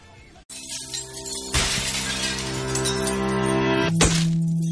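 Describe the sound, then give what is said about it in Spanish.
The opening of the second-season ending theme of the anime JoJo: sustained, layered instrumental chords that swell loudly after a sharp, crash-like hit, with another bright accent near the end and no singing yet. “Ok, entonces vamos a escuchar el, el ending de la segunda temporada y volvemos ya con el cierre y el reto.”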